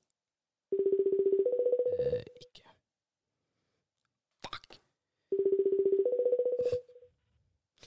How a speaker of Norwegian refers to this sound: Hør den koselige ringelyden. Og så svarer hun